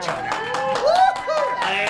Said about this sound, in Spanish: antes de todo eso, quiero que todos le den un aplauso